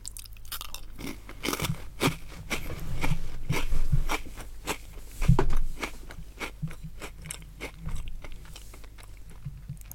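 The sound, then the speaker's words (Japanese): Someone crunches and chews a crisp biscuit, with repeated sharp, crackly bites in an irregular rhythm and softer mouth sounds between them. No one speaks. “完全にこのお菓子を食べてるけどもう寝るんだよね”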